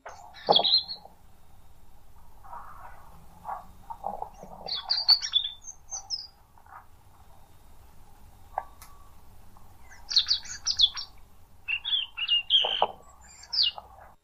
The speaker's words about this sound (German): Ja, dann einmal kurz leiser, hören wir uns einmal das Rotkehlchen an.